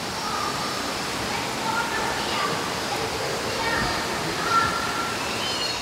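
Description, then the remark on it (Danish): A small stream runs steadily, its continuous rushing, trickling wash filling the whole scene at an even level, with faint voices drifting in from somewhere in the background. “videre ned langs med det her tog hen over det der løbende rindende vand.”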